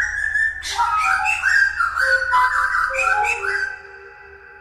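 A thrush sings bright, fluting phrases intertwined with a musician's melodic whistle-like tones, the two lines overlapping closely for several seconds over a faint low hum before fading out.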